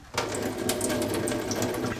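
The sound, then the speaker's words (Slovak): Water drains out of an opened can of corn in a steady pour, splashing and trickling continuously for a couple of seconds with no voices. “takže ideme otvoriť kukuricu a vodu zlejeme.”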